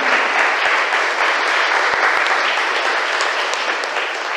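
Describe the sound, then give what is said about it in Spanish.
A crowd claps steadily for about four seconds in applause for San Antonio (Saint Anthony), a dense, loud wash of many hands with occasional sharper individual claps standing out, no voices heard. “Démosle un aplauso a San Antonio.”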